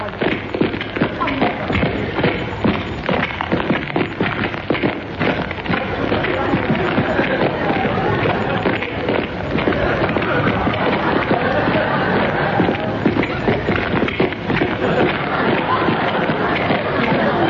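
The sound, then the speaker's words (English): A recording of many footsteps: a dense, continuous patter of shuffling and stepping feet, steady and fairly loud throughout with no pauses, like a crowd walking over a hard floor. “We can't stand here all day listening to a record of footsteps.”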